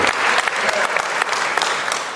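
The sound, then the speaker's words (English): An audience claps steadily, many hands overlapping into a dense, continuous wash of applause that stays fairly loud and even for a couple of seconds. “Come on, y'all clap it up better.”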